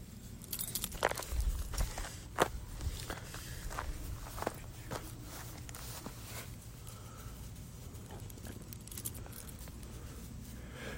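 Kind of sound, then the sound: human body sound, footsteps walking outdoors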